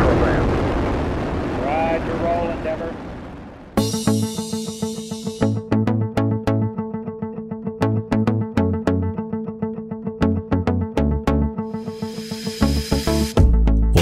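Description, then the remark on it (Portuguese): Space Shuttle Endeavour booster ignition and liftoff: a loud, dense, rumbling roar with a voice speaking over it. After about four seconds it cuts abruptly into a rhythmic musical beat. “Booster ignition and liftoff of Shuttle Endeavour.”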